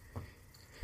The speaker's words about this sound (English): Now, there is a sound associated with a leprechaun and its approach. It's the sound of a cobbler's hammer, so I'm trying to keep my ears cocked for that tiny sound.